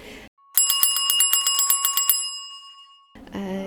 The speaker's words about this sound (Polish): Chodźmy do tego dzwonka. To są trzy trzy rodzaje tych dzwonków. Tak, tak, tak. Każdy jest, jest troszkę inny. Y, dzwonek elegancki na przyjęcia, taki fancy.